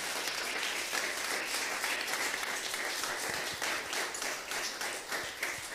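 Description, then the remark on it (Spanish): A church audience applauds together in praise of God, a dense, steady wash of many hands clapping that holds loud and even for several seconds, with faint voices mixed underneath. “Dele palmas al que vive, sea bendito su santo nombre.”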